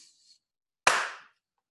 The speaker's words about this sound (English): all right I'm gonna clap and we can get started again